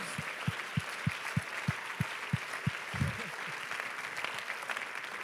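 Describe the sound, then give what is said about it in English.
An audience breaks into sustained applause to give God praise, a dense wash of many hands clapping, with a few steady low thumps pulsing underneath in the first few seconds. “Would you clap again and give God praise?”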